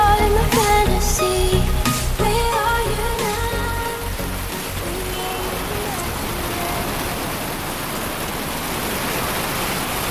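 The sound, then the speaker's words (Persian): A song fades out over the first few seconds and gives way to steady, dense rain hissing on a pavement, continuing evenly at a moderate level, in rainy weather with people passing along the sidewalk under umbrellas. “هوا بارونی بود مردم داشتن با چترای رنگی البته بیشتر سیاه از تو پیاده رو رد میشدن”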